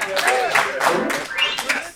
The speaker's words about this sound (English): even an applause at the end.